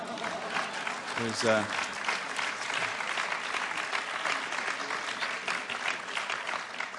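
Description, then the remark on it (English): Steady applause from an audience thanking Dr. Os Guinness, a dense wash of clapping lasting throughout, with a brief spoken voice cutting in near the start. “You were supposed to applaud, but that's okay.”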